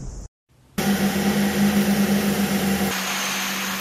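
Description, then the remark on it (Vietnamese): A loud, steady engine drone with a low throbbing hum starts after a brief cut, running continuously with a broad mechanical roar; no speech. Engines of specialized military vehicles on the training ground of the Navy Region 1 coastal missile brigade 679 in early May, under hot early-summer sun. “Trên thao trường của lữ đoàn tên lửa bờ 679 vùng 1 Hải quân những ngày đầu tháng 5, dưới cái nắng đầu hè oi ả, nhưng trên thao trường lẫn trong tiếng động cơ và mùi xăng dầu của các loại xe chuyên dụng”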